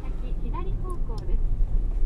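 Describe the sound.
A steady, deep rumble of road noise fills a car cabin while driving home, continuous and fairly loud, with a brief snatch of a voice speaking over it.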